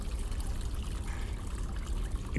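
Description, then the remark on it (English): Fresh water pours in a steady, unbroken rush from a waterfall inside a giant cavern, with a dense low splashing roar and fine spattering on top, heard alone without any voices. “I slowly, ever so slowly, put my lips towards the waterfall”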